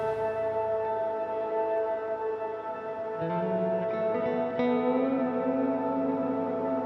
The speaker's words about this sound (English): The space echo, man. The, the thing that's adding all of that sauce. That's the best pedal ever. And there's even a button that means it'll just go forever now. Or I can make it do a crazy thing. It's a weird little box of infinite goo.